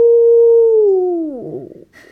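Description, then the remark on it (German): A voice imitates a wolf howl: one long, steady, loud wail that slowly slides down in pitch and breaks off into a rough, wavering tail, with no talking. “Geheul unter den hohen Bäumen, der Wanderer fasst den Knüppel fester”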